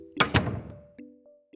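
A door slams shut with a heavy double thud, followed by a lingering low ring and a couple of faint latch clicks.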